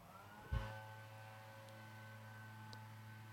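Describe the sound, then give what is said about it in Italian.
A leaf blower in a town square drones steadily, its engine holding an even, harmonic whine throughout, with one brief low thump near the start and no voices. “Si sente il, il soffiatore in piazza mentre aspetta, parlo.”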